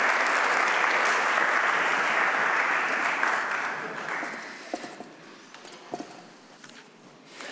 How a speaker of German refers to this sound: Vielleicht können wir als erstes dem Lobpreisteam einen Applaus geben. Ich finde dafür, dass sie den ganzen Sonntag hier geprobt haben. Vielen Dank.